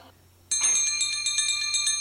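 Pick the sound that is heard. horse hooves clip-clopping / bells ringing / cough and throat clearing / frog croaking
bells ringing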